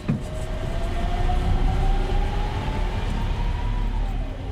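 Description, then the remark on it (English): An electric heavy truck at a port starts up and runs, giving a steady low rumble topped by a thin whining tone that slowly rises and then dips, quieter than a standard diesel truck. “Let's start it up here. It's a lot quieter than your standard diesel truck, huh?”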